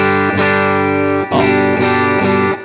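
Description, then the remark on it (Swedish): A distorted electric guitar with the pickup selector in the in-between position, combining the humbucker and the middle pickup, plays sustained, harmonically rich chords, with new strums around the half-second, one-and-a-quarter and later marks, loud and steady with no voices. “Och här är mittemellan.”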